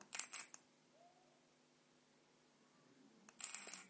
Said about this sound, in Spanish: Para bloquear, tres clics en el botón de calada